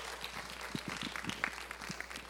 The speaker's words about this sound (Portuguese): aplaudir mais forte ao Senhor.